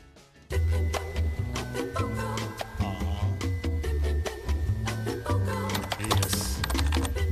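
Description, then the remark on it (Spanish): Quick, steady clicking of keys on a computer keyboard as someone searches online for facial routines for teenagers, typed continuously over a bed of music after a brief quiet start. “Nos sentamos frente al teclado y buscamos en TikTok rutinas faciales para adolescentes.”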